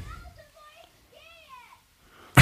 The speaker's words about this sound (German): Ein Kind steht vor der Gartentür und schreit in der Gegend rum.